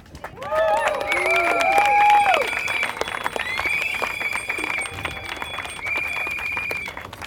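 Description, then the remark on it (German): A crowd bursts into sustained applause, with many hands clapping densely and high-pitched whistles and cheering voices rising over it for several seconds; the gathered members of a movement applaud themselves. “Also noch einfach einmal ein Applaus für euch alle.”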